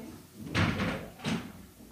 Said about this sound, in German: Okay, machst du die Tür bitte hinter dir zu? Gescheit, okay? Danke.